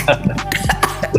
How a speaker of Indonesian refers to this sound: Hmm, instan karma kamu, keselat nyamuk. nyamuk gimana mau masuk mulut gua?